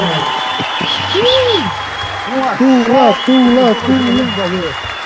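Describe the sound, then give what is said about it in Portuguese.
Steady clapping and crowd noise for a birthday run throughout, with voices whooping and cheering in rising and falling calls over the top, growing louder in the second half. “Mais, mais aplausos, mais aplausos.”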